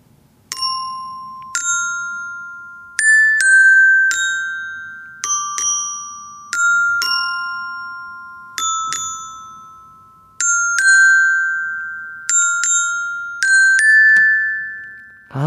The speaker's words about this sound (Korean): 소리가 참 예쁘죠. 어, 참 좋아요. 역시 그, 그, 제가 어른이 됐어도, 어, 이 추울 때, 아, 이런 실로폰 연주 참 좋은 것 같습니다.